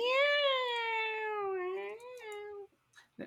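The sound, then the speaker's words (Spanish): A person imitates a female cat with one long, drawn-out, whiny meow that slides slightly in pitch for over two seconds, loud, followed by a brief breathy noise. “Y ese, y ese sonido como de gata de...”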